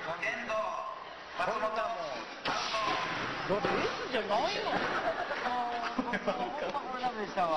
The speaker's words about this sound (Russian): Господи, его реально сейчас будут бить. О, господи! господи. А реально дали по заднице деревяшкой.